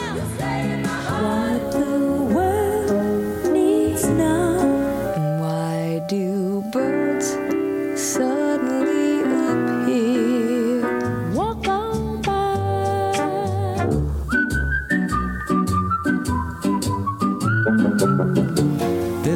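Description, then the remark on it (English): A medley of classic pop song excerpts plays loud and full, shifting abruptly between tunes every few seconds, with a bright, whistle-like melodic lead over lush band accompaniment and no talking. “He wrote memorable songs including, well, take a listen.”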